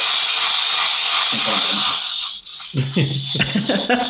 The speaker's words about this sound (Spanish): el mítico taladro percutor Bauke